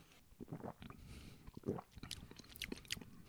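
Mouth sounds: a short sip followed by wet smacking and tasting noises, with a few sharp clicks of the lips and tongue. Quiet, no talking.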